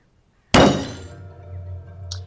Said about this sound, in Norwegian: Mens jeg sitter og jobber, så hører jeg brått et stort dunk. En ordentlig banking. Et stort bank fra akkurat som noen som tar knokene og slår ned i bordplata. Og det kommer fra bordet.